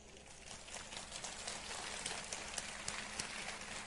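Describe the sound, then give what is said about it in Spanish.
An audience at a talk claps steadily for a few seconds for an eight-year-old boy, a dense crackle of many hands with sharper individual claps popping out, holding a fairly even loudness throughout with no talking. “Un aplauso para él, ¿sí?”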